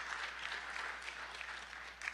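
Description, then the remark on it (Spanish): A crowd claps steadily, a dense wash of many hands applauding at once, fairly loud and sustained with no pauses, and no talking over it. “Y yo aplaudiría a Dios por su palabra y aplaudiría la palabra de Dios.”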